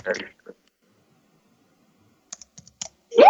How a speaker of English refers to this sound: I'm hearing a bunch of typing by the way.